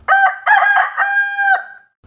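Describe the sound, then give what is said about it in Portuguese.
A rooster crows a loud cock-a-doodle-doo in several choppy bursts ending in a long, drawn-out held note, then it falls silent. “Estavam ali conversando quando o pato viu o galo chegando.”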